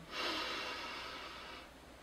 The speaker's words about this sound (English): Take a nice deep breath in through your nose and sigh it out. One more time, closing your eyes with me. Sigh it all out. One more time, nice big deep breath in.